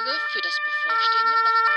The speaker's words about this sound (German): Nun Hörst du schon die, die Sirene?